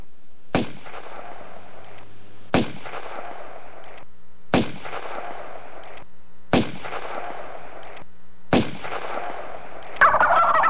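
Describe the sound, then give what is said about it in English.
A turkey gobbles in five evenly spaced bursts about two seconds apart, each opening with a sharp, loud crack and trailing off, with no talking. “Hey, just want a picture of a turkey. How do you like that?”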